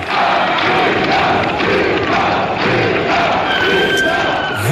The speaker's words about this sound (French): vous entendez le public de l'Olympia faire un triomphe